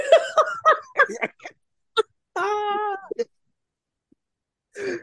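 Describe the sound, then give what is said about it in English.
A person imitates a cat, called a Salem, North Carolina cat, with a drawn-out, wavering meow near the middle, preceded by choppy laughing vocal bursts and followed by a short trailing sound after a pause. “Nah, that was the Salem cat out of me right there.”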